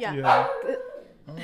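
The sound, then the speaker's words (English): A dog barks once, a short, loud bark, with a person speaking a brief word around it. “that's my dog.”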